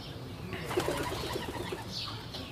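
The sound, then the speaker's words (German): A pigeon coos directly overhead at an animal enclosure with young hens and a duck, a soft series of low, throaty pulses repeating steadily for a couple of seconds against faint outdoor background noise. “Eine Taube. Direkt über mir.”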